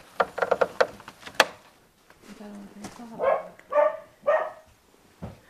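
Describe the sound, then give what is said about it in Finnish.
A hunting dog barks over in a corner at a raccoon dog it has found: three or four sharp, fairly loud barks at roughly half-second intervals, following some scattered clicks and rustling, with a low murmur in between. “Tuolla nurkassahan se haukkuu.”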